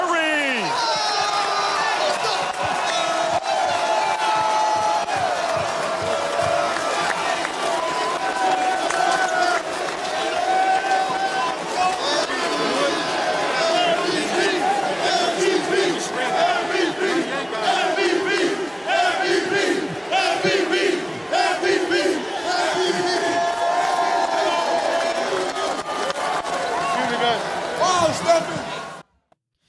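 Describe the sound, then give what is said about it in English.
A loud group of teammates chants 'MVP' over and over in a steady, rowdy rhythm for the 2022 NBA Finals MVP, with whoops and crowd noise filling the background throughout. “Yeah, so you could hear the MVP chants there by his teammates.”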